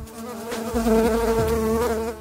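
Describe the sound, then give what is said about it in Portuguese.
A mosquito buzzes with a steady, whining drone whose pitch wavers and dips slightly as it hovers, continuous for a couple of seconds with no voices. “Tomar vitamina B afasta o mosquito.”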